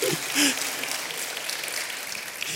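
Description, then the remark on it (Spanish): An audience claps steadily for a couple of seconds, a dense, even patter of many hands with a brief voice or shout near the start, applauding the people present who are over 65 years old. “un aplauso, un aplauso para ellos.”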